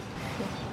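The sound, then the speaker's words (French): Flour mill machinery running at a mill, its mechanisms turning with a steady, continuous mechanical rumble, faint creaking and a small, very regular clicking, fairly loud and even throughout, with no voices. “assez fort, assez intéressant, c'est le bruit des moulins.”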